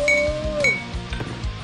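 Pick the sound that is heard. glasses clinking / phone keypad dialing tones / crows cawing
glasses clinking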